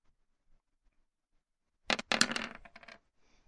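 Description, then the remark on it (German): Many dice rolled for damage in a game clatter and tumble across a hard tabletop in a quick burst of sharp clicks lasting about a second, fairly loud, then settle into quiet. “Ist ja direkt Schaden am Würfeln mit 1000 Würfeln.”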